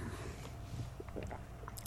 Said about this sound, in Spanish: ¿Oyeron cómo tragó saliva